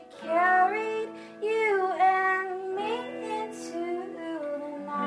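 A live song from a secret show in a living room in Seattle: a singer holds long, wavering melodic notes over steady guitar chords, fairly loud, with no other instruments.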